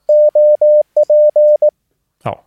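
A clean, steady Morse code tone spells out the letters OP, an abbreviation for operator, in CW: three long dashes, a pause, then dot-dash-dash-dot, followed by a brief snippet of a voice.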